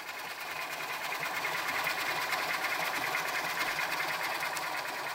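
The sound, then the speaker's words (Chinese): Dense, steady underwater ship noise recorded outside the port of Kaohsiung, a busy international harbor: a constant mechanical churn with a rapid, fine-grained rattling pulse and hiss across a broad range, holding an even loudness throughout, with no voices. “刚刚我们听到的就是高雄港外所收录到的水下声景。”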